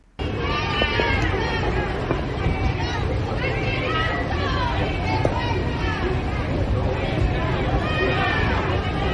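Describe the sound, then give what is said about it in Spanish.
A large crowd in Granada boos and jeers Sánchez continuously, a dense, loud wall of many overlapping voices with drawn-out cries rising and falling throughout, sustained without pause from start to finish. “En fin, este es Sánchez en Granada y estos son los abucheos.”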